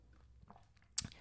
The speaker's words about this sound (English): and like I said, let me take a sip of water here. My throat's really dry after all this.